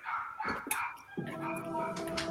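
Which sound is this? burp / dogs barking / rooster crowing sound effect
dogs barking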